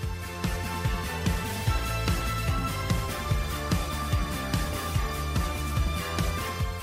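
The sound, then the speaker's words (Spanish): An upbeat indie rock song plays with a steady driving drum beat, bass and a bright synthesizer keyboard line layered over full, loud instrumentation, the band using synthesizers instead of guitars. No one speaks. “por eso agarraron sintetizadores y empezaron a componer esta canción”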